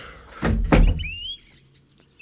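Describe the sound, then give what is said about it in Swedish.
A man slams a door shut with a heavy, booming thud, preceded by a brief rattling bump, then a faint squeak and quiet background noise as it settles. “Han slår igen dörren.”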